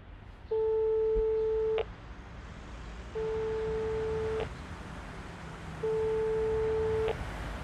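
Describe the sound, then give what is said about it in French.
A telephone ringback tone: three long, steady, mid-low beeps of about a second each, separated by short pauses, heard alone over a faint background hum. “Appel en cours.”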